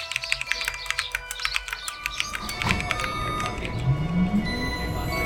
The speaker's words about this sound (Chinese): 清晨，窗外的麻雀叽叽喳喳，正在发电报给敌人。